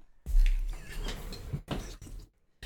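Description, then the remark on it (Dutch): A studio door is pushed open, starting with a low thump and followed by rattling, scraping handling noises, then a brief quiet and a few more soft knocks. “Kun je misschien even de deur van de studio voor mij openen?”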